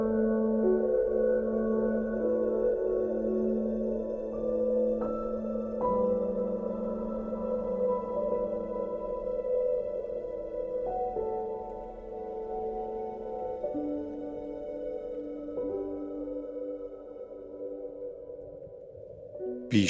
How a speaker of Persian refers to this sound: مدت ها بعد از جنگ سرد تا ها همچنان صدا توسط ارتش آمریکا رسد شد و صدای این نهنگ تا سال 2014 که آخرین سال شنود صدا در آن نواحی بود شنیده شد